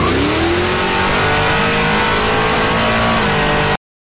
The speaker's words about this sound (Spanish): excedió la velocidad, forzando al auto a desestabilizarse, transportándonos no solo a otro punto de la historia, sino a una línea temporal totalmente desconocida.